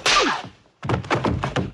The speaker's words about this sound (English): Here's a hard slap.